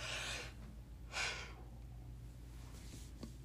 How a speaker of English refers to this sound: oop, getting the yawns.